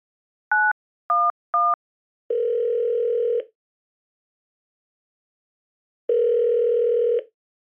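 Three quick telephone keypad beeps, then two long, steady ringing tones with a few seconds of silence between them, as a 911 emergency call is placed. Clear, with no voices.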